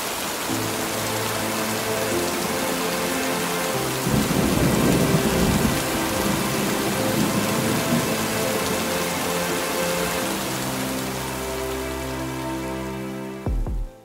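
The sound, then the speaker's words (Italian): Heavy rain hisses steadily throughout while low, rolling thunder rumbles underneath, swelling into a louder, deeper peal about a third of the way in before settling back. No voices are heard. “Il rumore di quelle mani battenti sembravano parte dei tuoni che si udivano.”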